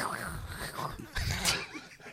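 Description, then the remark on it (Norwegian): Quiet scratching of a pen moving across paper in short strokes, with a couple of slightly louder rasping bursts near the end and no talking. “Det var lyden av penn mot papir.”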